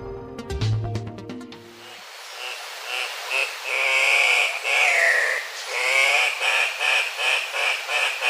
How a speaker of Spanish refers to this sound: El gallito de roca que estamos escuchando tiene un trino poco melodioso es una de las aves más vistosas que se puede observar en la zona andina de Sudamérica, lo cual lo convirtió, paradójicamente, en una especie amenazada.